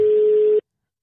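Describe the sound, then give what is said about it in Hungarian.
A single steady telephone busy tone as a dropped call is redialed, a flat mid-pitched beep held for just over half a second before cutting off abruptly into silence, with no talking over it. “szerintem megszakadtunk, de már is hívjuk Duda Ernőt újra, és akkor gyorsan itt már össze is kapcsolódunk, és minden jó lesz.”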